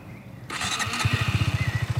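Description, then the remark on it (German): An engine is started by pressing a starter button with the ignition already on: a short whirring crank kicks in, then the engine catches and settles into a steady, rapid thumping idle, fairly loud. “Mach mal einfach den Motor an. Zündung hast du ja schon eingeschalten. Jetzt drück einfach aufs Knöpfchen mal.”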